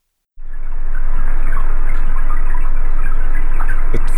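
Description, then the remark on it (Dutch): A dense, steady crackling patter like rain striking water, heard from below the surface, loud and continuous with a low rumble underneath and no voices. “Wel, we horen eh, ja, regen op het wateroppervlak, maar dat wel eh, opgenomen onder water.”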